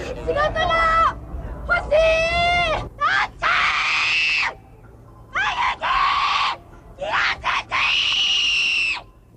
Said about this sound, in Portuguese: Como não têm Natal, os japoneses dedicam-se a cerimónias de esquecer o ano velho. Neste concurso em Tóquio, cada um grita como pode as frustrações.